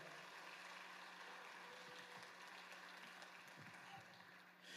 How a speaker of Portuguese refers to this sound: Quero perguntar se a tua esperança está somente nele. Se tiver, dê um aplauso bem forte àquele que é digno de receber a glória.